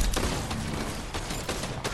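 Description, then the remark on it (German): Video game gunfire: several sharp shots cracking at irregular intervals over a dense, loud wall of noise, with no one speaking. “Ja, wahrscheinlich ist er auch nicht drauf, der Schuss, ne?”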